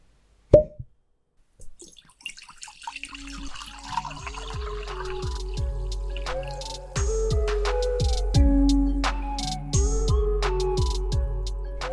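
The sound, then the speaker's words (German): A single sharp cork pop, then prosecco pouring into a glass with a bubbling, rising gurgle and fizz that grows steadily louder and fuller, with no voices. “Die Korken knallen, der Prosecco fließt.”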